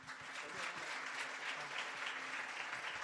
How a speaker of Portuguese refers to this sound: Dá um aplauso bem forte aí.